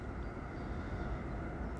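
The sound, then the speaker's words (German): A train rumbles past a lake, a steady, loud, low roar with a broad hiss of wheels on rails and no break in the noise. “Fährt hier auch noch ein Zug vorbei.”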